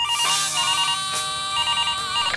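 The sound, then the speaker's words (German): A telephone rings for a daily phone call, with a bright electronic ringtone, a warbling, trilling tone that repeats steadily and fairly loud for a couple of seconds, with no voices. “Und, und äh, auch heuer gibt es das tägliche Telefongespräch, klar.”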